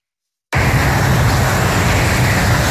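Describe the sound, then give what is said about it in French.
After a brief silence, a loud, continuous roar of heavy traffic on the A47 motorway at Rive-de-Gier in the Loire, France, sets in about 20 metres from residents' windows, reaching up to 95 decibels: a steady wash of tyre and engine noise with deep rumbling underneath and no voices. “Ça fait donc des années que tous les jours, ils subissent du bruit à 20 mètres de leur fenêtre, jusqu'à 95 décibels, l'équivalent d'une tronçonneuse.”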